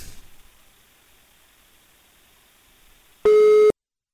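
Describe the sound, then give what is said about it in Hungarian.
A single loud, buzzy telephone line tone sounds for about half a second near the end, after a stretch of faint background hiss, then cuts off abruptly into silence, as a call is placed to a listener who does not pick up. “Hívjuk a nap hallgatóját.”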